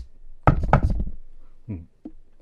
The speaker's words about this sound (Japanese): コツコツ、コツコツ。どうも、ベランダの窓の方から聞こえてくるような気がする。そっちに近づいてくると、コツコツ。